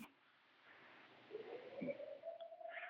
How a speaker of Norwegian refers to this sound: Hør, hør nå sirenen. Ja. Det er flyangrep igjen.